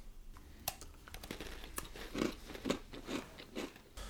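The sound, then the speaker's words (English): Someone bites into a hard, dry Stella D'oro anisette toast cookie and crunches it, with sharp crackly bites followed by several rhythmic chewing crunches and no talking. “I tell you uh, those you haven't had Anisette, crunchy, delicious, dunkable.”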